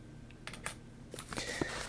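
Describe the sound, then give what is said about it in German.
Quiet rustling and crinkling of a cardboard box being unfolded further, with a few short clicks and taps followed by a denser stretch of papery scraping and crackling; the box holds a lot of paper material inside. “Wenn man das weiter aufklappt, sind da auch noch jede Menge Papierkrempels drin.”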